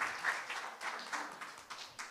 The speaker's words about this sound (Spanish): Dele palmas al Señor. Bendito sea su santo nombre.